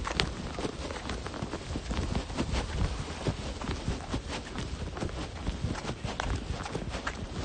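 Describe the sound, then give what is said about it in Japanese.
Steady, rhythmic footfalls of someone on a light, unhurried jog for exercise, quick evenly spaced thuds over a constant rushing background, with no one speaking. “前は走ったりとかしてた時はもうちょっとスピード上げてやってたんですけど今日はちょっと軽いジョギングなんでそうあくまで運動解消のためにですねはい走っておりました”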